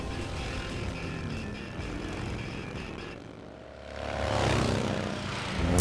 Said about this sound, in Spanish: A ver si hay moteros. Sí. Ahí va, ahí va. Los motos.